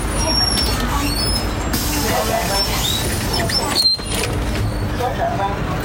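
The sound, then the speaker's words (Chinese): Inside a route 40 city bus in Shanghai at morning rush hour, with few passengers aboard: a steady low engine rumble and road noise throughout, with faint indistinct voices, a few thin high squeaks, and a brief thud near the end. “我发现上海早高峰的公交车真的是超级 chill 的，就一辆车上面好像没有多少个人，嗯，起码这一辆四十路是这样的。”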